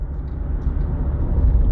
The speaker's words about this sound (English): That's a lot of cars.